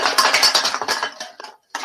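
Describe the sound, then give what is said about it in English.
A domino track toppling: a fast, dense cascade of light clicking clatters that thins into scattered ticks, pauses briefly, then ends with one last burst of clacks. No voices. “just knocked down the entire domino track.”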